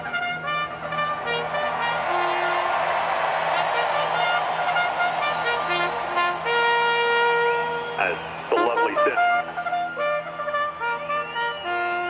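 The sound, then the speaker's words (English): A bugle plays the call to the post at a horse race, its bright sustained notes rising and falling over a steady murmur of crowd noise. “call to the post”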